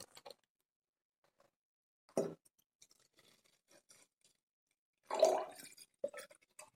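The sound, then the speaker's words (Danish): Two short, splashy bursts of liquid being poured into small screw-cap test tubes, a few seconds apart, with faint clicks and light handling noises in between, fairly quiet, no talking. “Skal vi ikke bare uh, prøve jo, at, at hælde op her? Så får vi jo en helt anden lyd af...”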